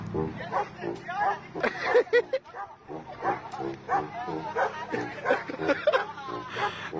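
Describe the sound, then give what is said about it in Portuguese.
A dog barks in short, regular yips on the offbeat alongside a man playing a baritone horn in a steady rhythm, the barks falling between the notes, with some laughter and voices mixed in. “O cara vai tocando barítono e o cachorro vai acompanhando do, no fundo, no contratempo.”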